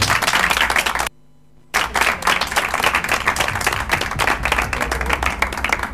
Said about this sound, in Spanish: Por eso un aplauso desde la organización, por favor, porque esto hace posible.